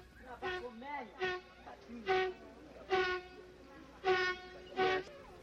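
An Efe man in the Ituri forest blows a horn to signal a found honey tree: about six short, loud, reedy blasts at a steady, uneven pace, with softer wavering vocal sounds between the first few.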